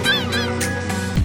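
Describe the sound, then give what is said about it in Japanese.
Seagulls cry out several times in quick succession, their shrill, bending calls loud, layered over a steady low rumble like surf; the gull calls are added as a sound effect to evoke a harbour town. “波の音をつけたりね、えー、カモメの声を足したりしてね、すごいこう、港町感溢れるね、釣り具屋がありそうな、その、夕日がよ、夕日がね、水平線にこう沈んでいく、そんな情景が釣り具屋の窓から見える。”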